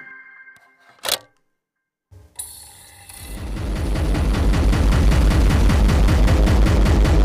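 A few scattered clicks and a sharp burst, then a speedcore track (the most recent one, posted a month ago) slams in: relentless, extremely fast distorted kick drums hammering like machine-gun fire, growing louder and filling the sound with harsh noise.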